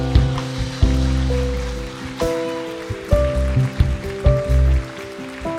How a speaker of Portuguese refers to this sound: Jesus está plantando. Aplaude, aplaude, é bonito.